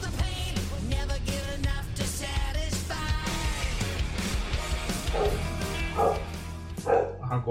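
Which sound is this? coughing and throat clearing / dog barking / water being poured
dog barking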